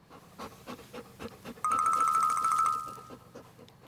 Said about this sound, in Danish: En anden, der sprøjter med vand, er hunden ude på gaden. Den står og sprøjter på en mærkelig rød tingest. Åh oh, oh ja, det er hunden, der tisser på en brandhane.